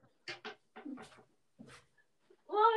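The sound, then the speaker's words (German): A cat being pushed away makes a few short chirping mews in quick bursts, then after a brief pause lets out a louder, drawn-out meow at the end. “Warte, ich schieße mir meine Katze ab.”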